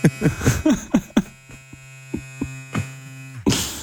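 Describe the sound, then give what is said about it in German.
A small electric shaver with a somewhat faster motor hums steadily, a constant buzzing drone with a few short bumps and rustles over it near the start and a louder burst at the very end. “Und ich glaube, meiner hat den etwas schnelleren Motor drin. Das hören Sie hier auch gut.”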